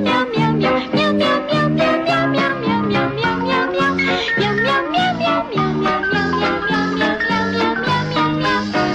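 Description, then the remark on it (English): Cat meows strung together into a bouncy jingle melody for a Meow Mix cat food advertisement, short rhythmic notes stepping up and down in pitch over steady backing music, loud and continuous with no talking. “Meow Mix tastes so good, cats ask for it by name. Meow.”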